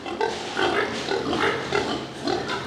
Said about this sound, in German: Da hat es Buchten drin, die sind durch Wände abgetrennt voneinander. Es hat überall Schweine von klein bis schlachtreif. Und hier geht es wirklich nur um etwas, ums Fressen.